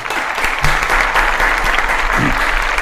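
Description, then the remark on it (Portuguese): Steady, dense applause from a crowd welcoming the show's guests, a continuous crackle of many hands clapping at a loud, even level throughout with no pauses. “Cadê os aplausos?”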